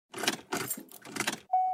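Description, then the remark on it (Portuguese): A car engine cranks in three short, rough bursts but never catches, followed by a steady high electronic beep at the end. “O carro não tá ligando”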